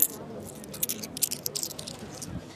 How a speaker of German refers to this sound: So, wir bleiben mal kurz stehen und kaufen ein Getränk für mich. Es geht schon wieder los. Getränke kaufen hier, gut. Muss man die Atmo aufnehmen hier. Raschelt doch extra laut mit dem Geld.